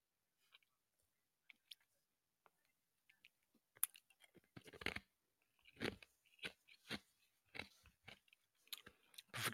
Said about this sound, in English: forgive my unprofessionalism. Yeah. I'm chewing I'm chewing ice.